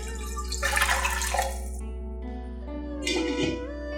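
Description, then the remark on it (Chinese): Water bubbling at a boil in a pot, ready for a steamer rack to steam pumpkin: two hissing, rumbling surges, the second shorter, over a steady low hum, with no talking. “水已经滚了，放上蒸架。”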